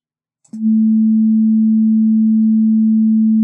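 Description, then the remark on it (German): A pure, steady low sine tone begins abruptly after a faint click and holds at constant loudness for about three seconds, smooth and unwavering with no other sounds. “Das ist jetzt ein Sinuston mit einer Frequenz von 220 Hertz.”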